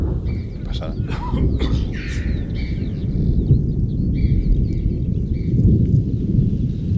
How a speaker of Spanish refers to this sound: Sí, sí, y dentro de un momento, la misma pared hará que retumbe y rebote y rueda ladera abajo el trueno. ¿Cómo, se nota que es Ordesa? Eh? Pues eso que oyes es el cañón de Ordesa. El trueno es el vaciado que rellena el hueco.